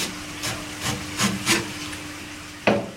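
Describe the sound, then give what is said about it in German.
A Japanese master chef in Paris, preparing unagi kabayaki, handles an eel and pins its head onto a wooden cutting board: a few soft, rubbing thuds in irregular rhythm, then one sharper knock near the end, with no talking. “Der Koch packt einen Aal und spießt seinen Kopf auf einem Schneidebrett fest.”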